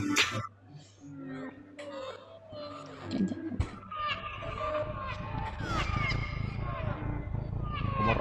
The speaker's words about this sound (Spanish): ¿La escucha el ronroneo del gato? Claro que la escucho, tío. es como un subwoofer. Está ahí ruku, ruku, ruku. Es como en subbajo, ¿sabes? Claro que se escucha.